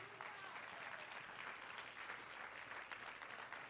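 loud applause

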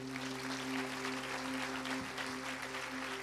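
audience applauding

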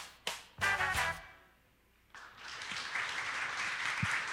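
audience applause

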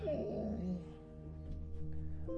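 dog whimpering

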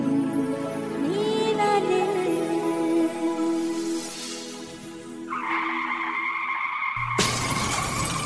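car skidding and crashing

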